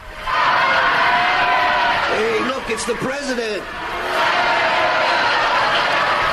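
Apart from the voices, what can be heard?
crowd cheering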